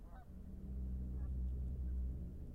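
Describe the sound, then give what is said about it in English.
A few faint honking calls from ducks and swans come through over a steady low rumbling background, with no talking, out in the West. “where there's ducks and swans and elk and wild things, and people who just want to be left alone.”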